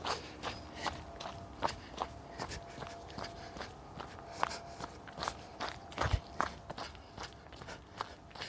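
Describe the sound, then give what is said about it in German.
Steady footsteps walking along a forest trail, each step a soft, slightly crunchy thud in an even rhythm, repeating throughout with no voices. “Jetzt geht man hier oben.”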